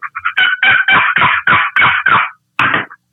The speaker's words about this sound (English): Said, okay, so I'm walking down the path with him, and, and he yelps on a box call, you know, and it's just a.